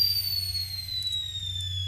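A teakettle on the fire whistles in a steady, high, piercing tone that slowly slides a little lower in pitch, over a constant low rumble, with no talking.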